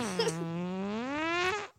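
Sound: fart sound effect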